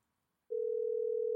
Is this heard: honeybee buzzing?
no